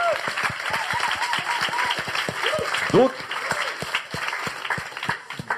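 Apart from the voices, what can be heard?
audience applause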